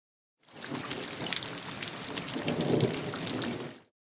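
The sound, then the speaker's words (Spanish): Steady, heavy rain pours down on a surface with a low thunder rumble underneath, swelling slightly toward the end before fading out. No voices. “Y también puede controlar la lluvia.”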